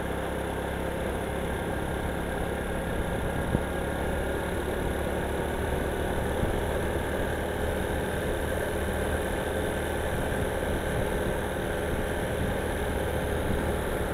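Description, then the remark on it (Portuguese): A motorcycle engine runs at a steady, even idle, a continuous low rumble with faint mechanical vibration and no voices, holding the same level throughout. “a moto não tá mais marcando velocidade não.”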